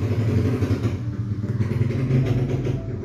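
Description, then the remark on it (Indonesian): A motorcycle engine drones past, a steady low rumble with a rough, rattling edge that swells slightly toward the middle and stays loud throughout. “bentar guys motor oh my god”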